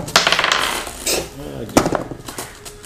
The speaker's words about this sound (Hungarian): Addig a kedvenc kockámmal dobom.